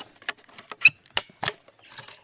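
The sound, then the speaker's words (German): A trail camera being opened: a quick, irregular run of sharp plastic clicks and snaps, about eight of them, with faint rustling handling between, and no voices. “So, jetzt Kamerafalle auf.”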